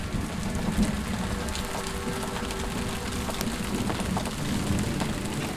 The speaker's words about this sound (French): Tu vas t'y réfugier quand une grosse pluie d'été s'abat sur toute la forêt.